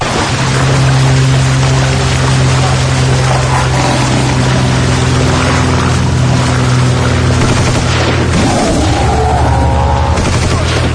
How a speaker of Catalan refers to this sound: la posem cada any els uh, avions intentant atacar uh, a un simi gegant en King Kong això és mm. l'entradeta a Sitges i també a la nostra secció uh, digues, digues Bé, sí, aquesta és la careta que us trobareu si veniu a Sitges a, a veure pel·lícules.